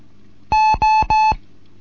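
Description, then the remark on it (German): Three long, steady Morse code tones of equal length from a Morse code lesson, separated by brief gaps. The beeps are loud and mid-pitched, with nothing else in the background. “Hier ist die Gott 1 Kilo November mit einem Morseunterricht, dritte Lektion heute.”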